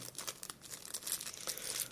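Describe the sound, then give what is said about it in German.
A tiny plastic bag crinkles as it is opened, a steady run of crisp, papery rustles and crackles for about two seconds, fairly quiet, with no voices; the bag holds four tiny screws. “Jetzt ist hier noch eine winzig kleine Tüte. Hier ist einmal vier Minischräubchen drin”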